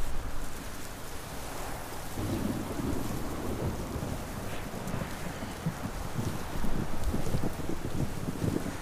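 rain falling

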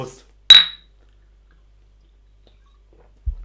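beer bottles clinking

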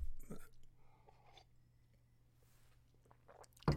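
sipping a drink

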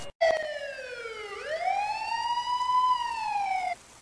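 police car siren

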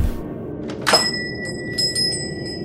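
doorbell ringing

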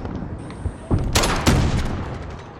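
video game gunshots

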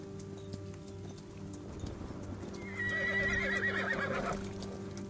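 horse hooves clip-clopping slowly

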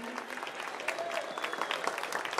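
audience applauding

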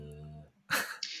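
dog snoring

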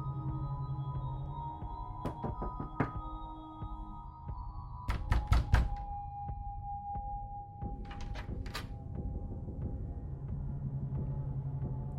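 knocking on a door

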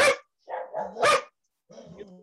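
dog barking

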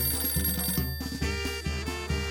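telephone ringing

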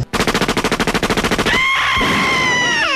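gunshot sound effects

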